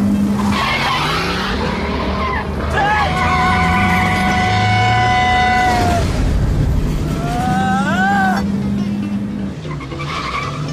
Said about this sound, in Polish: Muszę przyznać, że nawet po kilku latach ta scena oglądana nawet na ekranie komputera powoduje ciarki na plecach. Samochód przejeżdżający przez tory tuż przed rozpędzonym pociągiem. Ta scena jest niczym innym, jak tylko sztuczką montażową